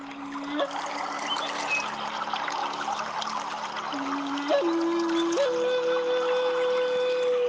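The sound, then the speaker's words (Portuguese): A steady, continuous wash of gently flowing river water runs throughout at moderate volume, with soft sustained musical tones holding and shifting pitch over it. “Sinta essas energias mantendo seu corpo em segurança na superfície, enquanto a água do rio vai gentilmente te conduzindo.”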